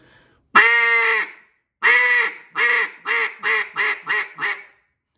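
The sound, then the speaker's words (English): A duck call blown in a basic hen quack, imitating a hen on the water to get a response from ducks: one long, loud opening note followed by six shorter quacks that come quicker and softer, a descending cadence played clear with no talking. “You see me, on, uh, the first note is loud. I'm not getting real fast, but I'm just – kind of that hens on the water.”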